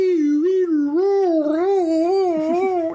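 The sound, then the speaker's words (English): A voice imitates the siren of an ambulance going by, holding a steady wailing tone for about three seconds as its pitch slowly rises and falls in smooth waves. “You know, when a, an, an, ambulance goes by, it's like”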